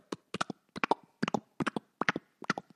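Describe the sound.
Someone clicks their tongue to imitate a horse's hooves, a clip-clop in quick galloping groups of three or four repeating steadily for a few seconds, with no talking.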